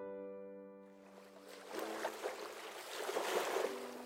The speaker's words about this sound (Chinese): 夜晚的海边很安静，很静谧。潮水的声音隐隐在耳边响起，好像这片海在这个时候只属于我们，而这片天地也只归属我们。